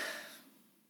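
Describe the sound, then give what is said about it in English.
A single breathy yawn, loudest at the start and then trailing off into a softer, fading exhale, with no talking. “That was a yawn there, and I just thought of an idea of getting a cup of coffee, and I'm gonna go do that.”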